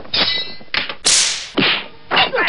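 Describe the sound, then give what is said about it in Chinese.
A sword fight effect of a long sword hacking at a corpse: four sharp bursts of slashing and metallic clanging, the first with a brief ringing tone and the middle one a bright, hissing swipe, loud with no talking. “刘秀才打开门，趁着尸体一不留神，举起长剑就向尸体砍去，”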